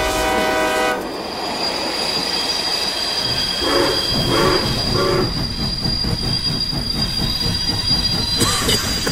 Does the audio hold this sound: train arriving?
yes